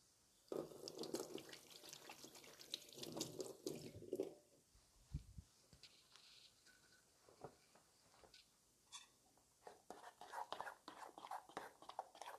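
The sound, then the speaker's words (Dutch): A leftover lemon half, pricked with a fork, is squeezed for a salad, giving a steady wet squelching and trickling for a few seconds, then scattered soft drips, clicks and small handling sounds. “En dan knijp ik hem uit boven de altijd even kijken of er geen ehm, pitjes in zitten, anders moet je die even opvangen.”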